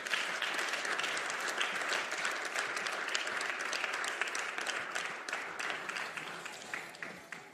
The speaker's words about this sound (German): Heißt sie mal ganz, ganz herzlich willkommen mit einem Applaus.